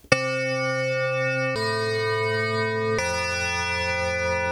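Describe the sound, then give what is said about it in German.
An electronic school gong chime sounds three sustained, steady tones in a row, each lasting about a second and a half and stepping to a new pitch, played loud with no talking over it. “Auf Schu Den Schulgong?”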